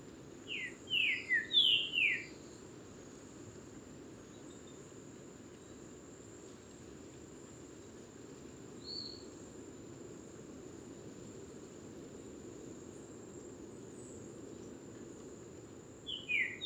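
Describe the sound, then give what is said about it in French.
A Lesser Antillean saltator, a bird, sings on an island in the rainy season a short burst of rich, slurred notes at the start, then a faint single note midway and another phrase at the end, over a steady drone of insects. “le Saltator Grosbec, qui est un oiseau bien sûr”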